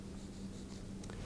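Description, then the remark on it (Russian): Faint scratchy strokes of the word "Mishnah" being written on a board during a lesson, a few short squeaks and scrapes over a steady low hum, with no one speaking. “Давайте напишем просто Мишна.”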